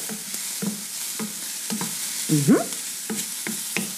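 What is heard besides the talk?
onions sizzling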